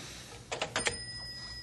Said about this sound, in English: Uh, what's with the phone? Just be patient.